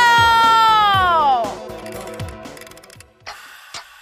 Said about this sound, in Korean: 여러분들 시계 돌아가는 소리 들리십니까? 예, 째깍째깍.